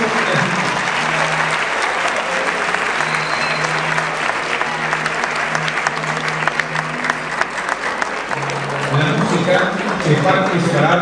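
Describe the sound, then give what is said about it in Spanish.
An audience claps steadily for about eleven seconds at the close of a school ceremony, honouring those who presented works in an environmental contest; a dense, continuous patter of many hands, with faint murmuring voices and a low hum underneath. “Por lo tanto, finalizamos esta ceremonia en esta parte brindándole un cariñoso aplauso a todas las personas que presentaron trabajos en este concurso.”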